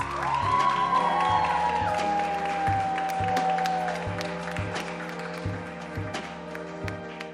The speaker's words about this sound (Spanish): Me encantó. Muchas gracias por todo fuerte aplauso. Fueron semanas y semanas de ensayo. Muchas felicidades.